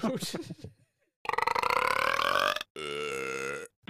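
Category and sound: human body sound, burp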